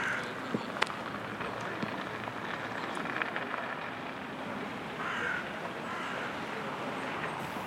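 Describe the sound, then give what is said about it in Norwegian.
Two crows playing give a few scattered, harsh caws, one longer call standing out, over a steady hissing wash of background noise like rain or wind. “Så der ser du to kråker som leker.”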